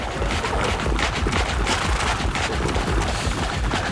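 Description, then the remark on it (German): Loud, dense clatter of horse hooves, a rapid jumble of thudding impacts over a rough, noisy rumble, with heavy snorting breaths mixed in; no one speaks. “Man hört es schon, das Pferd äh, nimmt immer mehr Gestalt an, man hört die Hufen, das Schnaufen.”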